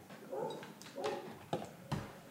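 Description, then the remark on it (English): A dog named Daniel barks a few times by a pool in short, irregular bursts, moderately loud, with brief pauses between the yips and no talking over them. “Daniel, stop bad. barking.”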